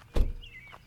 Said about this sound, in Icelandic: Allt í einu var hurðin rifin upp farþegamegin.